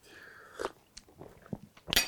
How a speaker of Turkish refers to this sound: Ağzımdan içmeden geri koydum cevap vereceğim diye. Bir, iç, bir yudum alıyorum hemen.